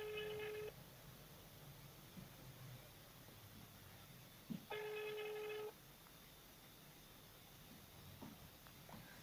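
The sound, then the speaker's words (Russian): Ringback tone of an unanswered phone call to a newsroom: two long, steady electronic beeps about four seconds apart, heard through a telephone line over a faint hiss, with nobody picking up. “Номер не отвечает.”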